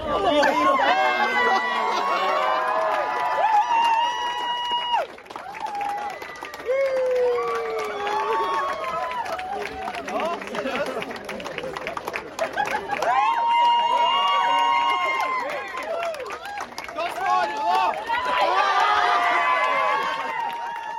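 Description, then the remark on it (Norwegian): A crowd cheers and shrieks excitedly at a marriage proposal at the Hell conference in Hell, many voices overlapping in loud, high-pitched whoops and shouts that carry on almost continuously, with two brief dips before swelling again. “Jo, nå hører du lyden av årets eh, mest impulsive frieri.”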